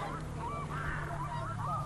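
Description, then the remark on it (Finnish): A red-throated loon calls loudly, a run of wavering, goose-like wailing cries repeating in quick succession over steady background noise, with no talking. “Joskin toi kaakkuri ikiaikainen huuto, se on, se on hieno.”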